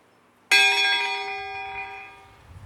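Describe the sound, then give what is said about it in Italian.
A single church bell in Nembro strikes once as a name is read aloud, with a sharp onset, its bright metallic tone ringing out and slowly decaying over a couple of seconds, with no voices present. “Allora ad ogni nome che verrà ora letto ci sarà il rintocco della campana quasi a dire per ciascuno, ecco anche per te c'è il suono della tua campana.”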